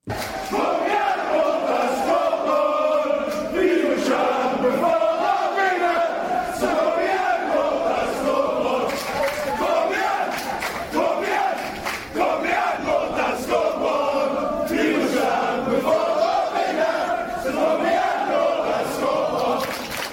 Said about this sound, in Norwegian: før denne første hjemmekampen mot eh, Åsane så gikk Brann-supporterne i tog fra Solheimsviken til Brann stadion for å hylle en nylig avdød supporterlegende.